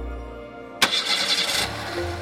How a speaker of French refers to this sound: La maman de Tom démarre et klaxonne en quittant la maison.